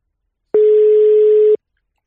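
A single one-second burst of an outgoing call's ringing tone, a steady mid-pitched beep over faint line hiss, with silence before and after.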